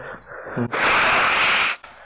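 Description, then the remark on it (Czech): One loud, forceful nose blow lasting about a second, a harsh rushing burst of air, with a short quiet breath before it and no talking. “Jo, takže, pardon, se vysmrkám, jestli to nebude.”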